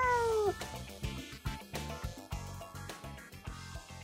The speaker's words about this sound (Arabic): في صوت ناعم وقصير ممكن تطلعه القطة وهي مارقة جنبك على شكل مرحبا يعني وهي بتكون عن جد قصدها فيه إنه مرحبا